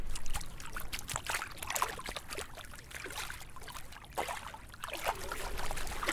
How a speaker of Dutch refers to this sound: Precies, dus laten we maar even gaan, eh, gaan schepnetten dan. Kijk hoor. Daar gaat hij.